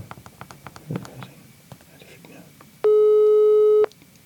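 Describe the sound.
A single loud, steady electronic telephone tone sounds for about a second after soft, murmured voices and faint rustling, like a call ringing on the other end of the line.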